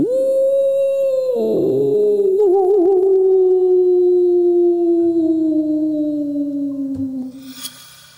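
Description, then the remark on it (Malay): A single long dog howl at about 2:30 in the morning, loud, holding a steady wavering tone for several seconds before slowly sliding lower in pitch and fading out at the end. “Jadi nak jadikan satu cerita ni, sebelum aku pergi ke kerja tu aku akan aku macam terdengar macam bunyi anjing mau. Bunyi anjing yang menyala yang macam agak panjang sikit.”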